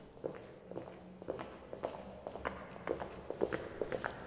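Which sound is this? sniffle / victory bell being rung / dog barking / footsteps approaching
footsteps approaching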